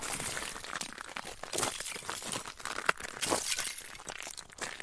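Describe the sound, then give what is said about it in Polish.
Continuous crackling and shattering of ice being broken apart during a harsh winter, with dense bursts of sharp, glassy cracks and crunches that rise and fall over several seconds, without any voices. “I miałem ze sobą sprzęt, tam nagrywaliśmy różne właśnie też dźwięki, i żeśmy sobie zrobili spacer i pewnego dnia jakoś tak, nie, nie pamiętam już kto z nas stwierdził, że można by nagrać w sumie taki efekt i ten lód się rozbija.”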